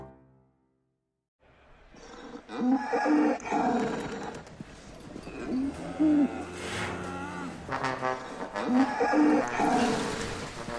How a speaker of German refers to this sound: Da, da kommen sie, die Kühe.